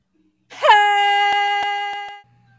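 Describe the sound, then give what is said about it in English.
A single drawn-out, plaintive cry of a man falling one and a half miles straight down swoops up at the start, then holds one steady, sustained pitch while slowly growing weaker before stopping, with a few faint clicks. “there is no one to hear Lando's plaintive cry”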